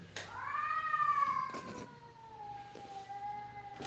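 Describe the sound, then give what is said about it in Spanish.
A cat lets out a long, drawn-out yowling meow that wavers and slowly falls in pitch, sustained for several seconds, fairly loud with a few brief rustling bursts underneath. “Hasta ahora los gatos.”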